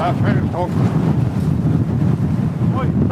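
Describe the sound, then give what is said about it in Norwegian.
Heavy storm wind roars and buffets the microphone steadily throughout, a dense, rumbling gale blowing the roof off a garage, with brief faint voices calling out beneath it. “Det er ikke lov å le, men altså, det, det, er bare så Det er altså Der, der fyker liksom Når du står der, så bare går taket av garasjen.”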